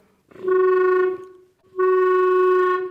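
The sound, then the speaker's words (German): A clarinet plays two long, loud notes at the same pitch with a brief pause between them, its tone slightly buzzy and gurgling from water in the tone holes. No one speaks. “Es kann sein, dass dann das Wasser da reinfließt und dann blubbert der Ton.”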